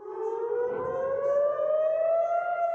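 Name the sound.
air raid warning sirens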